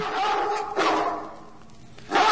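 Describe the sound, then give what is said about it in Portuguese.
Boris, the household's pet dog, loose in the garden below, barks in a few sharp, loud bursts, with a drawn-out first bark, a quick second, and a pause before a final bark, with no talking. “Cida acorda com os latidos do cão de estimação da casa, que ficava solto lá embaixo, no jardim.”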